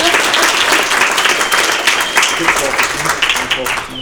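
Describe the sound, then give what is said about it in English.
Loud, sustained applause from a large audience welcoming a speaker, a dense steady wash of clapping lasting several seconds, with a few voices faintly mixed into the crowd noise. “Uh, ladies and gentlemen, please join me in welcoming”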